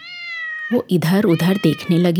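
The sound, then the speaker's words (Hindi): A small kitten lying at the roadside with an injured leg lets out one long, drawn-out pained meow that slowly falls in pitch, clear, before a woman's voice starts talking over the quiet that follows. “बिल्ली का एक छोटा सा बच्चा सड़क किनारे पड़ा हुआ था”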